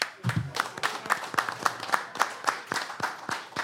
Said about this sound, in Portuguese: Acho até que merece palmas.